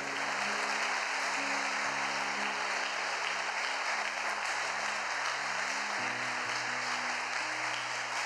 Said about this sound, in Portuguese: Em nome de Jesus, se você crê nisso, aplauda Ele. Aleluia.